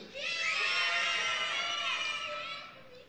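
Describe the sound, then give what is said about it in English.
An audience screams and shrieks together for the last T-shirt in a giveaway, one loud, sustained burst lasting a few seconds, with many high-pitched voices overlapping before fading out. “Let's hear the last T-shirt scream.”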